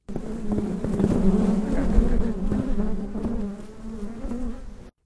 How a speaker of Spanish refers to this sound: El apiario es ese lugar preparado para que las abejas melíferas puedan desarrollar sus colmenas. Allí, las abejas se albergan dentro de unas cajas